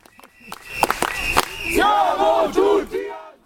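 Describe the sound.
A large counter-demonstration beside tram tracks near a courthouse chants a slogan such as "There is no right to Nazi propaganda" in unison, voices loud and rising together, with sharp claps or bangs at the start and a ragged, outdoor crowd texture underneath.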